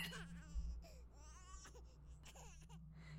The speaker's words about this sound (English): When I went to the bathroom, the toilet was by the window, and as I sat on the throne, I could hear a baby crying.